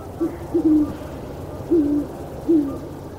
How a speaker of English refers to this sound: But now, among aspens and oaks, in this quiet and secluded place, and with the safety of a moonless sky, this time the female replies and the owls talk back and forth, her voice thin, his low and smooth as butterscotch and rum.